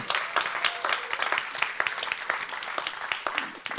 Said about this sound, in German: Und äh, weil alle, die zu Hause sind, das nicht miterleben, sollten wir dem mal einen richtig fetten Applaus geben.